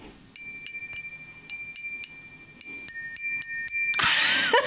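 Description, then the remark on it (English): A series of bright, ringing bell-like tones is struck in a quick rhythm, picking out a slightly halting attempt at the Jingle Bells melody, then cut off by a sudden burst of rustling noise. “no, that was supposed to be Jingle Bells.”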